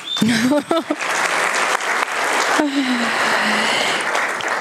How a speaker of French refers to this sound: Ensuite, on a Benjamin Ribert, pareil, applaudissements.